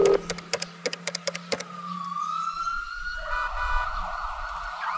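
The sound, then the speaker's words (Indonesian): An ambulance siren sounds loud, opening with a quick run of sharp staccato blasts, then settling into a sustained wailing tone that climbs slightly at the end, with no voices. “Hanya tubuh gemetaran sang ibu yang ia ingat saat mengantarkannya duduk di kursi ambulans di samping Mrs.”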